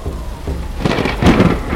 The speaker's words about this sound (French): En novembre 2018, l'archipel haïda terre natale de la nation Aïda, est frappé par une violente tempête avec des vents de la force d'un ouragan en provenance de l'océan Pacifique.